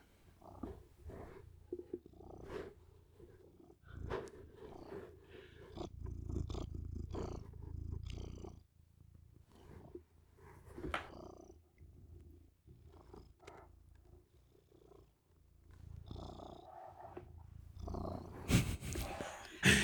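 A cat named Sobcio purrs in a steady, rumbling rhythm of repeated breaths, fairly quiet, with a brief louder rustle near the end.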